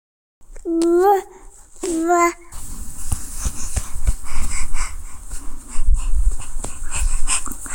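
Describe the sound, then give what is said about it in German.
A child imitates a dog with two short, high-pitched yapping barks, followed by steady rustling and shuffling noise. “bist du ein Hund?”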